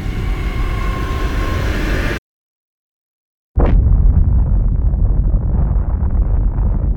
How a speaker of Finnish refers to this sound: Mutta Krakatau ei vain sihahtanut se räjähti.